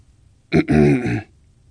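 A single awkward cough, a throaty, voiced "ahem" used to break an awkward silence, catching briefly and then dragging on for under a second, fairly loud against quiet surroundings with no talking.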